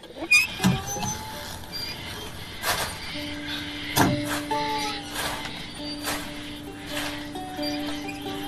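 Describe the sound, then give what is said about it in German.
A windmill squeaks and creaks steadily, with long sustained squealing tones and repeated sharp creaking clicks as it turns, moderately loud, with no voices. “aber jetzt haben wir hier das Windrad. Das quietscht wunderbar vor sich hin.”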